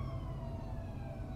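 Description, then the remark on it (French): Emergency vehicle sirens wail steadily over a low rumble as they approach, growing from faint to louder, their drawn-out tones sustained throughout the short stretch with no voices present. “Des sirènes, faibles, mais de plus en plus fortes à mesure qu'elles approchent.”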